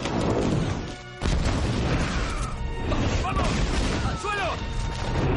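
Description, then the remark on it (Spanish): Loud missile explosions striking a tree roar and rumble continuously, with a sudden massive blast after a brief lull and crashing debris clattering down, while cries rise through the chaos. “¡Los misiles han dado en el blanco!”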